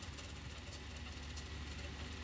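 A cassette deck fast-forwards its tape with a steady, quiet mechanical whir and hiss, continuous and unbroken, with a faint low motor hum beneath and no voices.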